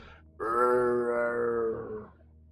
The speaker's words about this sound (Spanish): De hecho, de ese lugar se pueden escuchar los ruidos que las víctimas hacen. Este clásico canto gutural.